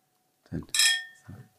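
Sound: drinking glasses clinking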